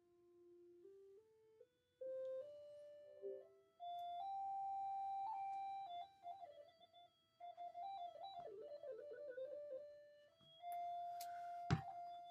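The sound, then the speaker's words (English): A steady electronic tone from a light-sensing device climbs upward in stepped jumps as the device is brought almost to a light bulb, holding each pitch briefly, then wavers and warbles near a high note before a sharp thunk near the end; no talking. “I'm almost touching the light bulb, and you can tell by how high the pitch is.”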